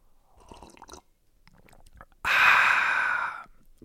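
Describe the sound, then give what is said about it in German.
Soft slurping mouth sounds of someone sipping coffee, followed by a loud, breathy exhale lasting about a second, with no talking. “ich trinke mal einen Schluck Kaffee.”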